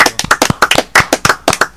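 Hand clapping on a radio programme: a quick run of about a dozen sharp, loud claps in an uneven rhythm, sounding like one or a few people applauding, with no talking over it.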